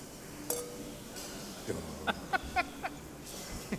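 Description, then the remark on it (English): A series of light, ringing glass clinks, four or five quick taps close together, as glasses touch in a toast, one glass held at the wrong spot so there is no big clunk, with faint voices and room murmur underneath. “Didn't give the big clunk because I held the wrong spot.”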